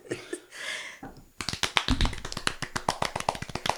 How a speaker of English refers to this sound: all right. Golf clap.